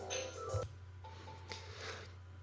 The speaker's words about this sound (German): Jetzt klingelt das Telefon im Hintergrund, das heißt also, ich mache kurz Pause, gehe gleich weiter.